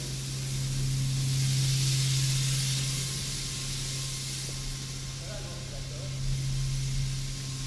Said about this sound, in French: C'est un ensemble de machines électriques qui transforment le courant alternatif de l'électricité de France en courant continu.